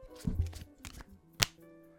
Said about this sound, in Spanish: Yo creo que esos swing cuts nosotros siempre lo vemos como, oye, esto es como una preparación para entrar a hacer un corte, es como para calentar las manos, no sé, mucha gente como antes de grabar un corte siempre hace como el típico